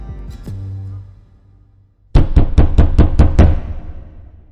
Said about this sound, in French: Quand les flics frappent à leur porte, ils n'ont pas la force de s'enfuir.